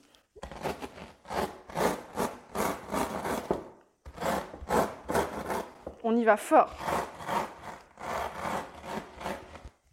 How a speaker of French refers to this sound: Je prends mon rouleau à pâtisserie et je viens écraser mes cornflakes. Vous entendez ce petit bruit